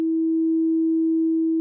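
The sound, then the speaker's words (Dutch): A single pure, steady sine tone at a low-mid pitch, the sinusoidal pattern of something gradually rising and falling, greatly sped up to be audible, holding constant and fairly loud for under two seconds with no overtones, no other sounds and no voices. “Iets wat gradueel toeneemt en afneemt, levert een sinusoïdaal patroon op.”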